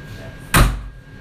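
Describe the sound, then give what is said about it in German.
A single sharp thud of a door shutting, fairly loud, with a brief low rumble trailing off afterward against a quiet background. “Das geht nicht mehr von alleine auf. Jetzt hast du so die Türen in der Hand.”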